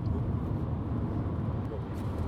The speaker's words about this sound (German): Ihr hört richtig, wir sind gerade im Auto